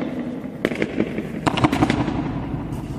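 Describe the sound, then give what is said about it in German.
Three footsteps, not loud stamping, in the centre of the Marienehrenmal memorial ring out as sharp cracks and break into a rapid flutter of 36-fold echoes caused by the architecture, several bursts clattering in quick succession before decaying over a low, steady background hum. “Also es ist auch so gewollt, dass man hier in der Mitte den 36-fachen Schall hört. Oder das 36-fache Echo.”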